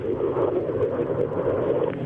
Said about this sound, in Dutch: De straaljager stort neer lijkt het wel. Ik weet het niet zeker. Ja, Allah Akbar, God is groot, wordt geroepen. En de straaljager is aan de zuidkant van de stad Zuidwest neergestort.